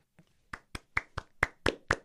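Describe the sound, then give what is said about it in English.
A live studio audience claps: a quick run of about seven sharp hand claps in a steady, slightly uneven rhythm, each crisp and fairly loud, with no talking over them. “Clap it up. Real sound Clap it up.”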